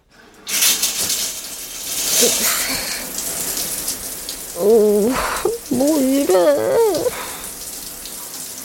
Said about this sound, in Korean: 하나뿐인 화장실은 좁았다. 이나는 수온을 조절하기 위해 샤워기의 수도꼭지를 조심스럽게 조작했다.